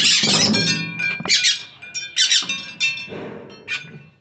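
A parakeet squawks loudly and harshly in a rapid series of about six grating bursts, with no voices present.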